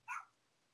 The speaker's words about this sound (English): And I could hear a doggy bark right now. Yeah, that's that's my dog in the background. He's a little wiener dog trying to ask in.